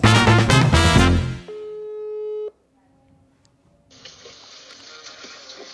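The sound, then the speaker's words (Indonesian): A burst of music cuts off into a single steady telephone ringing tone lasting about a second, as a call is placed to an interview guest, followed by a short silence and then a soft, steady rushing hiss. “Jadi untuk selanjutnya narasumber siapa kali ini kita langsung telepon aja narasumbernya.”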